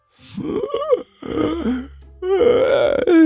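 A loud, drawn-out vocal yawn, groaning and moaning in three sweeping stretches of rising and falling pitch, with short breaks between them and no words spoken.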